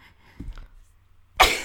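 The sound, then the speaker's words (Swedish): A single loud sneeze bursts out near the end, preceded by a brief quiet intake of breath. “Oj, prosit”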